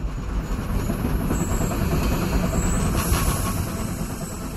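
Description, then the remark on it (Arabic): A steam train runs along the rails with a steady, dense mechanical rumble that stays loud throughout, with faint metallic hiss above it and no voices. “لكن التغيير لم يأخذ وتيرة متسارعة إلا بعد اختراع المحرك البخاري الأداة الأساسية التي استخدمت لضمان استمرار الإنتاج على مدار الساعة”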